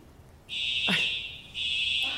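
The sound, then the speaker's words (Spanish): A loud, piercing fire alarm blares in sustained high-pitched tones inside a coworking office building, starting abruptly, breaking off briefly, then resuming. A short sweeping sound cuts through the middle; no voices are heard. “Está sonando una alarma aquí en WeWork.”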